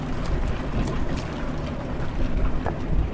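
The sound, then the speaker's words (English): A boat motor rumbles steadily while the hull cuts through water, with continuous splashing and wind buffeting the microphone, loud throughout, as the boat travels from Bella Bella through narrow channels between mountains and out into a big bay. “The boat moves through narrow channels between the mountains and then opens up into this big bay, and there you are.”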